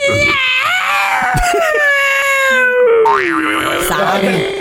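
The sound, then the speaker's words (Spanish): A human voice imitates a yowling cat in heat: one long, loud, wavering wail that slides up and down in pitch, with no other talking. “Un gato en celo ese.”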